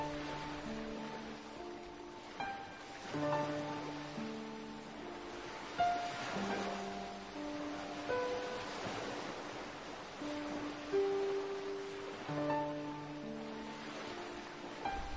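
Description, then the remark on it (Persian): Waves wash onto a shore in steady, rolling surges every few seconds, a soft hiss beneath sustained, gentle instrumental music with no voices. “آره در کنار ساحل حالا که نشستیم موسیقی خوب داریم”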